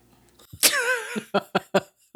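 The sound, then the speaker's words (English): A dog pants in quick, rhythmic bursts of breath, fairly loud, after a brief whiny, voiced exhale at the start. No one is talking. “He's breathing in the background. I hope. I hope you can pick that up.”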